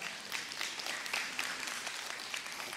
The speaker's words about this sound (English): But stop comparing yourself to others. Comparison, you already know, comparison is the root. Oh, you can clap for that. You can clap for that.